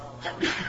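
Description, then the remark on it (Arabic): A single short sneeze: a brief intake followed by a sharp, breathy burst, moderately loud, over a low steady background hum. “رحمك الله”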